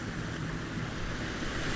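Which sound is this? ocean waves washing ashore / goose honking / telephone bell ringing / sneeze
ocean waves washing ashore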